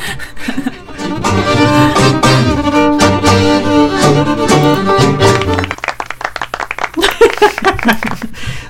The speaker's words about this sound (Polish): To był brawa.